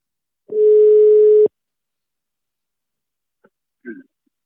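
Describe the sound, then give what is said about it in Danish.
A single steady telephone ringing tone sounds while a call connects, lasting about a second, followed by silence, then a faint click and a brief muffled noise. “Så jeg, jeg prøver lige at ringe til Anders og høre”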